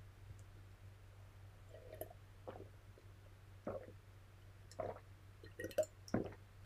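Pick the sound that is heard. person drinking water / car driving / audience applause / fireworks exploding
person drinking water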